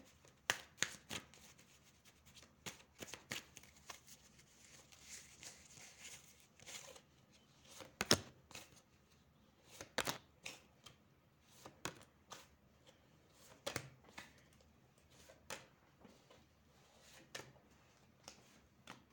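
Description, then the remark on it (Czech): A deck of cards being shuffled for a yearly card reading, heard alone with no talking: soft papery riffles and sharp flicking slaps come in irregular bursts, with a few louder snaps standing out against a quiet background. “A já už se dívám na vaši fotku, míchám u toho karty a podíváme se teda spolu, jak se bude barvit to období 2022.”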